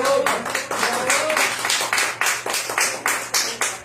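Applause of steady, rhythmic hand claps, roughly fifteen sharp claps at an even pace throughout, fairly loud, with a faint voice briefly audible near the start.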